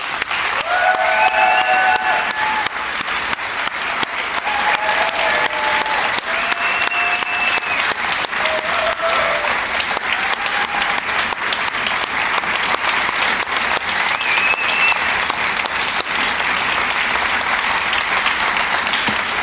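Sustained, dense applause from a sizeable audience for a member of the show's team, steady and loud for about twenty seconds, with a few whistles and cheers rising above the clapping.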